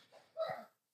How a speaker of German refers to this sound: ui, Gesundheit.